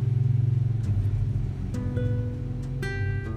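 A loud vehicle engine rumbles, its low drone shifting in pitch as it passes, with harmonic whine rising partway through and no voices.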